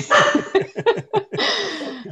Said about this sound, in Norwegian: Nå starter bikkja mi å bjeffe. Beklager. Dette er Så... den eneste podkasten hvor jeg er veldig glad for uh, hunder på podkasten.